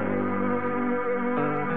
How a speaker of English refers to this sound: and my rotary engine is a humming along. That rotary power feels good to me. Me and my Mazda in harmony.